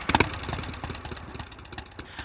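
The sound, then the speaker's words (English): A Harley-Davidson V-twin motorcycle engine idles with an uneven, loping rhythm of low pulses, starting with a brief louder blip before settling into a steady potato-potato beat. No voices. “and consequently, though there are other manufacturers of motorcycles with long heritages such as BMW, Ducati, Triumph, only a Harley Davidson sounds like this.”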